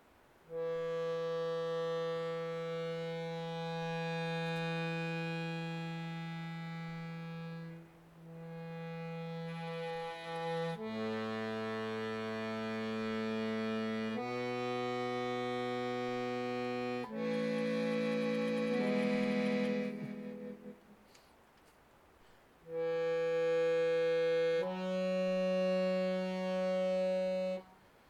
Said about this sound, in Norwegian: Jeg har tatt tigget med meg trekkspillet ut. Jeg tenkte at jeg kunne ta noen gra, grav... Altså litt gravtoner.